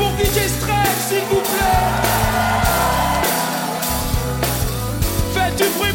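A loud crowd cheers and yells continuously at a concert in Paris, a dense wash of voices, with music playing underneath throughout.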